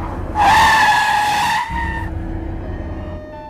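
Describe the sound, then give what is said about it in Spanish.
A car brakes hard with a loud, sharp tire squeal lasting over a second, fading as it slows, while a low engine rumble continues underneath until the car comes to a stop in front of a medical centre. “El carro de Adaluz se estacionó frente al centro médico.”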